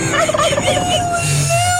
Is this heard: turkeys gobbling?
yes